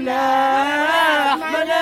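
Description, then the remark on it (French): Loud, sustained shouting from a group of voices outdoors, a long drawn-out cry that rises and falls before breaking off, with no clear words. “elle appelle en direct sa tante pour savoir si les cris à l'extérieur”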